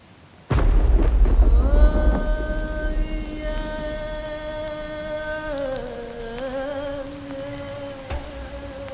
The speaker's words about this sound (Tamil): கருமுகில் ககனம் கூடி கவின்றிருள் வையம் சூழ நெருப்பென மின்னல் கீற்றும் நிலத்தினை நீவிச் செல்லும் பெருந்திகில் கொள்ளும் வண்ணம் பேரிடி முழங்க எங்கும் பெருமழை பொழிய மண்ணில் பிறந்ததே மாரிக்காலம்